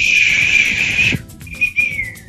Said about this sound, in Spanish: Eso silbido.